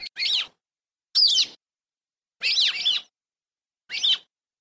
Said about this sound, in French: Alors ce cuit a l'air tout à fait ordinaire est celui du moineau soulci, Petronia petronia